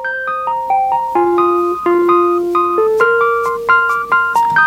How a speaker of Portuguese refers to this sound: O que muda, aí é, é, o som mais moderno do instrumento mais moderno na época, mas o arranjo aí é quase que o mesmo. Exatamente, as duas são cara. good vibes, as duas têm esse pianinho elétrico de base.